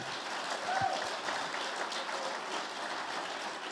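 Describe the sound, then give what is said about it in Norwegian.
A crowd at an evening gathering applauds a visiting guest who has stood up, a dense wash of many hands clapping at a fairly even level throughout, with a brief whistle-like tone near the start. “du må reise deg opp, og så skal vi gi han en skikkelig god klapp.”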